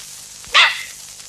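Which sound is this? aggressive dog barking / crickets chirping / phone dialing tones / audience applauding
aggressive dog barking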